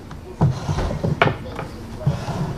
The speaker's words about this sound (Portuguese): Ao abrir uma das gavetas